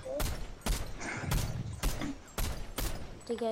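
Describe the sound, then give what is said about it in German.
Video game gunfire: about seven sharp, loud shots crack out in an uneven sequence, each a quick burst over a busy background of game sounds. “Ja, nice, nice Schuss, nice.”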